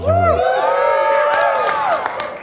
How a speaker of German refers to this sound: Alle jubeln und freuen sich, halten Handys in die Höhe.